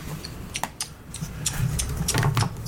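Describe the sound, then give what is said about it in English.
Irregular clicking of computer keyboard keys being pressed in quick bursts over a low background hum, with no one speaking. “Okay, thank you yeah. for shitting on my keyboard.”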